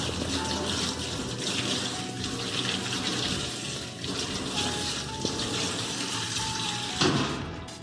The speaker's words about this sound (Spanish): Humedezca sus manos con abundante agua.